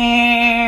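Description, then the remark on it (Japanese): A voice imitates a cicada's 'byuiin' call in a style like Mongolian hoomii throat singing: a single steady, buzzing note with a bright whistling overtone. It is loud, stands alone, and lasts under a second before trailing off. “私の出した結論は「ビューイーンビューイーン」ですそしてただのビウイーンではなくモンゴルの歌唱法ホーミーがホーミーがかっているということですあ私もそう思ったホーミーっぽいなウィーンウィーンこのこれ音壊れちゃうぐらい出るよ私音量ウィーンの上の方ね下じゃなくかなりセミだと思うわ”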